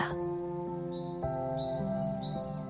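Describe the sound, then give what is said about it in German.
A green grasshopper chirps up close in short, repeated high-pitched bursts, made by its wings vibrating hard, heard alongside a steady humming tone throughout. “Du siehst, wie die Flügel des grünen Insekts heftig zittern, während der Grashüpfer sein Zirpen damit erzeugt.”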